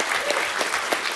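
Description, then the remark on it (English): A brief burst of steady clapping from a small group at a party, dense and even, with faint hints of voices mixed into the applause. “Thank you so, so much for coming to our party”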